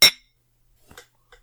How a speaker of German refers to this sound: wollen wir mal anstoßen? Wir wollen mal anstoßen, ja. Auf das, was es wert ist. Auf das, was es wert ist.